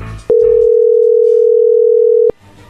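A telephone ringing tone as a call is being dialed: one steady, mid-pitched electronic beep holding for about two seconds, opening and closing with sharp clicks, loud and alone with no talking.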